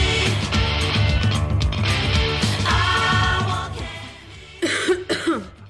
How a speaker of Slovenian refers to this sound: se še kar izkašljujem, da ne poslušam.